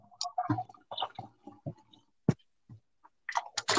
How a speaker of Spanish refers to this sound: estoy lavando trastes, ¿eh? No creas que, es otra cosa.